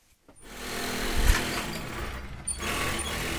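A tailor's sewing machine runs steadily in his small shop in the north of Paris, with a dense mechanical whir, starting after a brief silence and continuing at an even, moderately loud level with a short pause and restart near the end.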